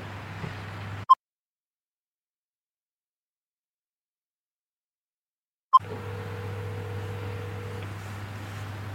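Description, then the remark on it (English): A single steady phone ringback tone on an outgoing call to a neighbor that goes unanswered, about two seconds long, sounds over a low background hum after a stretch of dead silence bracketed by soft clicks. “It's ringing.”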